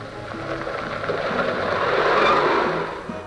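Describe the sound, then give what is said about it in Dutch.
An army truck rushes past with a broad engine roar that swells, then stops, braking hard with a drawn-out squeal of brakes and tires before settling. No voices are heard. “Een legertruck scheert voorbij en stopt met piepende remmen.”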